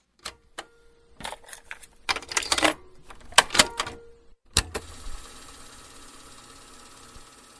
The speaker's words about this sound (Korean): 아이고 이런 카세트 테이프 씹혔네요. 테이프 늘어졌거나 기계에 물렸을 때 아유 안타깝죠.